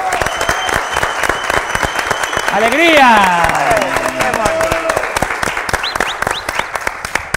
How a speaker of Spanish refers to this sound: Aplausos, muchas gracias.